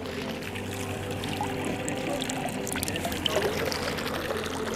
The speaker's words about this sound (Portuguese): A história no subterrâneo de Zurique e beleza na parte de cima, onde a água é limpa não apenas no rio que corta a cidade. São mais de 1.200 fontes como essa